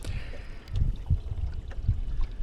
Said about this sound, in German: Wir, wir driften hier ganz schön. Und also ähm, vielleicht nur mal, dass man, äh, wir erzählen dir keinen Bullshit, wir sind hier wirklich auf einem Boot.